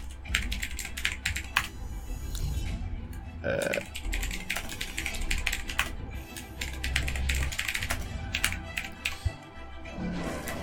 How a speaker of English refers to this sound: In fact, I'm going to type them down. Where does this mechanical keyboard go?